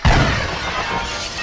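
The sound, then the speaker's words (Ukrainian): An artillery shell hisses over an estate and explodes not far away, bursting in with a heavy, deep boom, followed by a loud, sustained crashing rattle of shaking windows that slowly fades over the next second. “В цей момент над маєтком пронісся шипінням снаряд і недалеко розірвався.”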